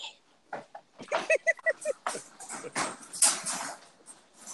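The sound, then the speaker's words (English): A dog in another room whines and yelps in a rapid string of short, high-pitched cries, sounding somewhat muffled, with no talking over it. “Let me go see what's wrong with the dog.”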